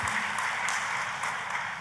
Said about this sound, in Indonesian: Tepuk tangannya boleh paling meriah ya buat Tuhan kita.